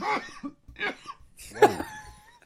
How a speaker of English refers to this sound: Quite the cough.